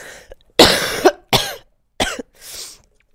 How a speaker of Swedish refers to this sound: Förlåt. Behöver du hosta mer? Nej, inte nu.